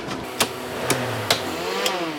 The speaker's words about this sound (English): The noise you hear is the air compressor pumping up the air seat.